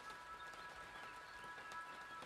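Steady rain patters onto hard surfaces, a dense, continuous hiss of countless drops at an even level with faint individual taps scattered throughout. No voices.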